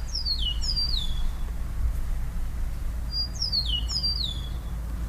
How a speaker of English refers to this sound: And here she is with another avian enhanced audio postcard.